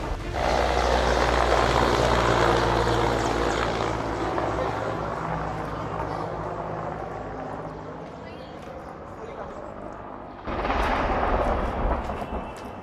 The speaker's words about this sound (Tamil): தள்ளாடியபடி பறந்த ஹெலிகாப்டரின் பயங்கர சத்தத்தால் அங்கிருந்த சுற்றுலா பயணிகள் அச்சத்துடன் ஹெலிகாப்டரை பார்ப்பதும் வீடியோவில் பதிவாகியுள்ளது